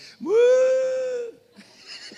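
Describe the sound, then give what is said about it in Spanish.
A man's voice gives one drawn-out, moo-like call, rising at the start and then holding steady for about a second. He is imitating a cow named Prieta lowing in reply to its owner's call. Faint background noise follows. “Y dice, mire hermano, las vacas me conocen. Y lo le grita, ¡Prieta! Bien lejos. Y lo le hace,”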